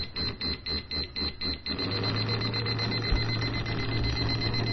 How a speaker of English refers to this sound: So you can hear it's a constant vibration and a much faster beat. Let's remove that liquid level indicator from the uh, cup now